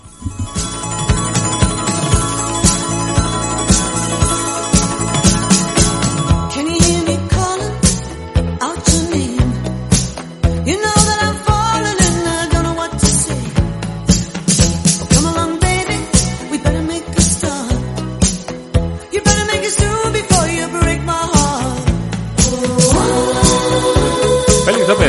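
A rock band plays continuously, with steady drum hits, sustained melodic instruments and bright, ringing high tones layered over a full, driving mix at a constant loud level.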